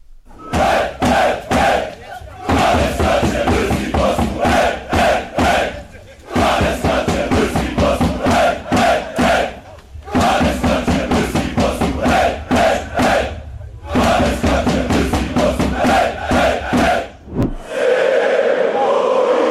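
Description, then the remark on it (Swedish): A large crowd of football supporters, the BH Fanaticos, sings loudly in unison at a match gathering in Rossio square, Lisbon. Rhythmic chanted phrases repeat in bursts with brief pauses between, ending in a swelling roar of voices. “Och de sjöng så att det hördes över hustaken.”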